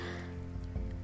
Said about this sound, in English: I can hear the water dripping from my gu- from our gutters.